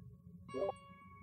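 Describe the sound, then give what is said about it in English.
A short Discord app notification chime sounds once, a bright tonal ping with a lingering ring, over faint low background hum. It's fairly quiet, computer audio coming through someone's speakers. “They keep hearing Discord sounds.”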